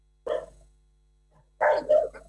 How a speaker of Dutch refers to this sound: Ja. Twee honden. Ja.